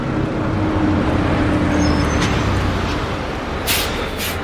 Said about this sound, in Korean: 버스가 와서 지나가는 사이 시야가 닫혔다가 열렸다.